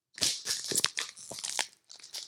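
A bar of chocolate is snapped in the middle, giving a run of dry, crisp cracks and crinkly rustling of the wrapper, with a few sharper snaps standing out, no voices.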